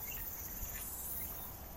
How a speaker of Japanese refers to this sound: 聞こえるかなセミがね、鳴いてるんですよ。